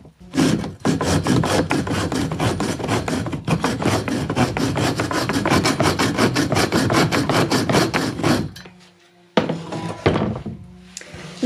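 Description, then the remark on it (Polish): A hand saw, fitted into a wooden miter box, rasps back and forth with fast, steady strokes for about eight seconds, loud, then stops and a wooden knock follows. “Sprawdzę, czy wejdzie do tego korytka. Powinna wejść.”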